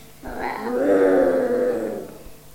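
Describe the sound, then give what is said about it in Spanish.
A single loud, drawn-out growling roar, like a comical stomach rumble, swells up and fades over about two seconds, heard on its own. “El lobo iba paseando por el bosque y de repente oyó un rugido enorme.”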